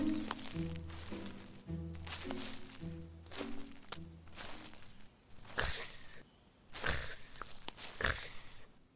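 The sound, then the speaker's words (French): Crunchy footsteps on dry leaves along a dark forest path, about a dozen uneven steps at a slow, wandering pace, fairly loud, with a soft sustained tone humming underneath during the first half. “Font les feuilles sèches et les miettes de son petit bras mêlé.”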